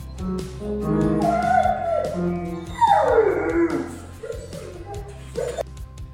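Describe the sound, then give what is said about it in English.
A German Shepherd howls and yowls in long, wavering, sliding notes while playing a few scattered piano notes struck unevenly, with soft whimpers and yips between the howls. “Nala the German Shepherd has learned to play the piano and sing”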